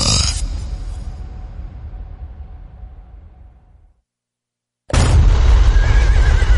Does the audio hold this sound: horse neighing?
yes